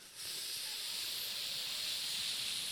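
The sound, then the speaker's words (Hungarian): A moka pot, set aside after the coffee is poured out, hisses steadily as its bottom cools and the pressure drops, sucking air back; a bright, airy rush that starts abruptly and holds at an even, fairly loud level throughout, with no talking. “Kiöntötted, hanem hallod, hogy elkezd a kotyász így”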